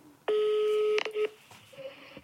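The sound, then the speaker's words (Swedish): Telephone dialing tones ring out loud as a call is placed to the charity Rädda Barnen (Save the Children) in Sweden: one long steady tone, then two quick beeps, followed by a faint, quieter tone against a soft background hum. “Och jag ringde till henne och eh, frågade vad vi kan göra.”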